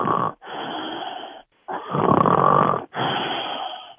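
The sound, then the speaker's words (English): A person fakes loud snoring, with four rough, rasping snore sounds in a steady rhythm, separated by brief pauses and no other talking. “This is a totally fake snore.”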